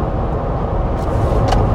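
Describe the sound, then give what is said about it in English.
Steady, dense morning rush-hour road traffic rumble on the way into Boston, with heavy low-frequency engine noise, like being in a car amid busy traffic beside a truck, with brief hissing bursts like air brakes. “This is morning rush hour traffic.”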